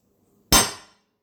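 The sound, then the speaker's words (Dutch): A single sharp metallic bang as the spoon used to serve macaroni is struck hard against the cooking pan, with a bright ringing tail that fades out within about half a second. No one speaks. “John slaat de lepel waarmee hij de macaroni heeft opgeschept tegen de pan.”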